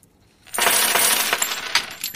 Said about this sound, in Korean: 야 동전이 엄청 쏟아지네요. 네. 이게 오늘 보물소리입니다.